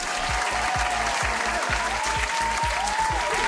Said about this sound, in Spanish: Oye, recibamos con un fuerte aplauso